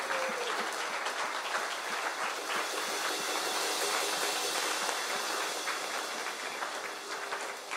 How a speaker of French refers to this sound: applaudir le Dieu de l'impossible. Amen.